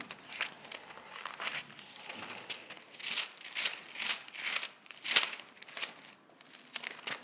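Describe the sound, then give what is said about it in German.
Dry papery rustling and soft flicking as thin pages of a Bible are leafed through in quick succession to find 1 Peter 3:18, with irregular bursts of crinkly swishes and no one speaking. “Muss ich jetzt selber gerade blättern.”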